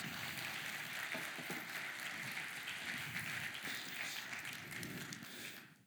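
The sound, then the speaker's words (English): A crowd claps steadily as a guest is invited to come up, in a dense, even wash of applause that holds for several seconds, then fades away at the end. No one speaks over it. “Will you give her a round of applause as she comes up and uh, spend some time with us?”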